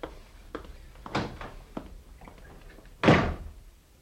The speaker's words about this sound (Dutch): Wat een onaangenaam mens. En om zo de deur achter zich dicht te smijten.